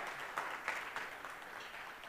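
An audience applauds, a dense, steady wash of many hands clapping together that carries on evenly for a couple of seconds, heard from a moderate distance without anyone speaking.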